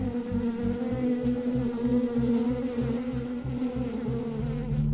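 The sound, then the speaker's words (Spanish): A dense, steady drone of thousands of honeybees buzzing all around, loud, forming a continuous humming swarm with no voices present, amid smoke from a beekeeper's smoker while combs full of wax and honey are moved into a wooden box. “Estábamos envueltos en la neblina que producía el humador, con miles y miles de abejas zumbando por todos lados.”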